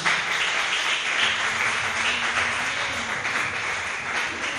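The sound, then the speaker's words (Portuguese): An audience breaks into sustained applause for the name of Jesus after a prayer, a dense, steady wash of many hands clapping at once with no voices standing out, holding at an even loudness throughout. “Vamos aplaudir o nome de Jesus.”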